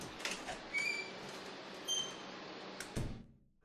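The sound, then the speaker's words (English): A service door in an arch at the back of Aldwych Station creaks open with a few short, high squeaks over a steady hiss of background noise, ending in a dull thud before fading out, with no voices. “Mycroft led me through Aldwych Station to a service door in an arch tucked away at the back of the building”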